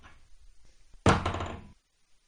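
Dice are thrown onto a table for a crossbow shot in a game, rolling a 1, a sudden loud clatter that rattles briefly for well under a second before stopping, after a quiet low rumble.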